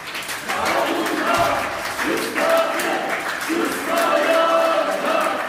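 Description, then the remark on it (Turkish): Steady applause and chanted slogans from lawyers of the Ankara Bar Association marching inside the Ankara Courthouse in protest, a dense, continuous clatter of clapping mixed with shouted group voices throughout. “Ankara Barosu'na üye avukatlar adliye içinde alkışlarla ve sloganlarla yürüdü.”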